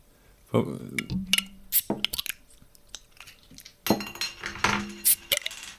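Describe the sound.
Glass bottles clink together in a toast, two bright, ringing knocks a few seconds apart, fairly loud, amid rustling handling noise and some talking.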